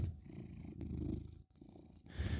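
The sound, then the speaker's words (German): A steady cat purr with a low rumbling pulse, continuous for a couple of seconds with a brief pause midway, then resuming strongly. No voices. “Cat Content.”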